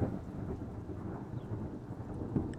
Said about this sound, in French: une grande tempête s'élève de la nuit.